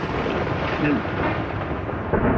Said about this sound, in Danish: Og det er så lyden af torden, men det tror jeg, det er fordi, at producer Sibald har fundet tordenknappen.